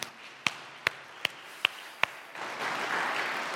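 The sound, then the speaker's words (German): A few evenly spaced, sharp hand claps ring out, then soft, dense applause from a small audience swells and continues to the end, with no talking. “Ich finde, äh, ihr könntet mal einen kleinen oder großen Applaus”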